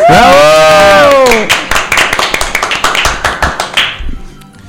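A crowd bursts into loud applause for a guest on a show, after a brief high, sliding cheer, the clapping dense and steady for a few seconds before thinning out and fading away.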